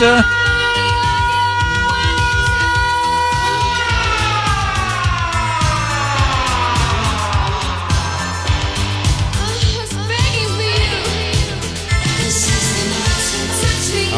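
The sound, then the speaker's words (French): A loud fire engine siren wails continuously, its pitch gliding up and down in long sweeps, dominant throughout with a steady low rumble underneath, while a dog barks. “Hein, on entendait des sirènes un petit peu partout, comme celle-ci, avec le toutou qui aboie.”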